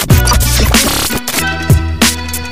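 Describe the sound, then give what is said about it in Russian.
A loud hip-hop beat with booming, pitch-dropping bass kicks and punchy percussion, layered over sustained tonal synth chords. It plays on its own, with no voices. “Я вот даже не могу промолчать, вроде как уже должна песня, но когда просто слышишь такой сочный бит, я не могу молчать, мне хочется кричать!”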